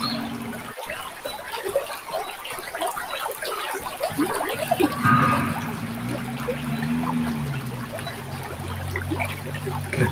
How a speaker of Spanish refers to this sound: esos pensamientos, dificultades, van lentamente reduciendo su intensidad y adentrándose en el caudal del río.